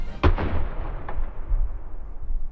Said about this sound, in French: Et pour gagner cette guerre de Crimée, Napoléon III déploie une pièce d'artillerie française redoutable, le canon obusier de 12, rebaptisé Canon de l'Empereur.